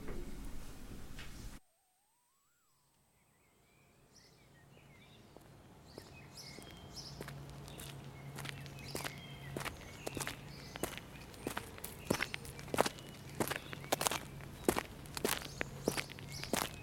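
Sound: footsteps walking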